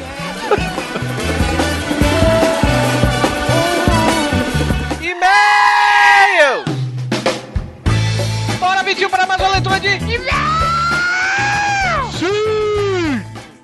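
A man, asked to shout, lets out loud, drawn-out shouts in two long bursts, his strained voice rising and falling in pitch over a noisy background.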